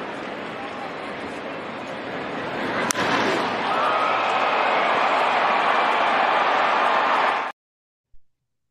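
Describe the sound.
A baseball home run by Shohei Ohtani: a sharp bat crack cuts through steady stadium noise, and the crowd roar swells loudly and holds for several seconds, with talk mixed in, before cutting off abruptly.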